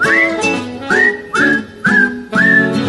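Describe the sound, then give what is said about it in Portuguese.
Someone whistles a short tune, five clear notes that each swoop upward before holding steady, over a soft, low accompaniment with no talking. “Enfim, três na estrada, assobiando, assobiando,”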